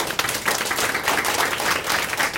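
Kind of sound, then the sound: crowd, audience applause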